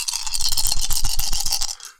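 A handful of six six-sided dice (6d6) rattles and clatters in a dense, rapid stream of sharp clicks for about two seconds, then quickly dies away. No one speaks.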